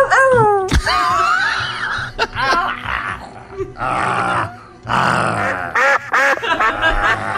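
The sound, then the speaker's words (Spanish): A person imitates a duck, letting out a rapid string of loud, nasal quacks and squawks, with pitch sliding up and down between bursts. “A ver, ya, cerebro de pato, termina.”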